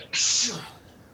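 A single sneeze bursts out suddenly, a sharp breathy hiss that fades within about half a second, fairly loud against an otherwise quiet background.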